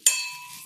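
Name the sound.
glasses clinking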